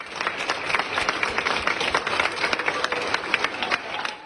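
Health workers applauding steadily as UK Prime Minister Boris Johnson, treated for coronavirus, is taken out of intensive care to the room where his treatment continues; dense overlapping claps fill the whole stretch, with no one speaking over it.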